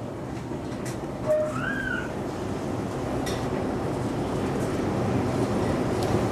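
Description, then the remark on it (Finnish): Steady low rumble of a metro train moving through an echoing underground station at the Kaisaniemi metro stairs, with a brief high metallic wheel squeal early on and a faint clank. No one speaks. “Niin on Kaisaniemen metroportaat ja onko tämä vähän sun työpaikkaa vai miten sä Tommi Laitio tämmöisenä nuorisotoimenjohtajana?”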